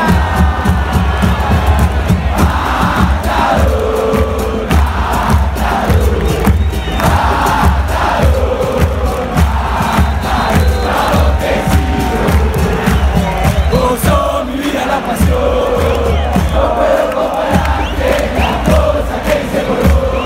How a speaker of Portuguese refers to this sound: Então a gente vai começar falando sobre o Tigre é, na voz da torcida é, de É Matador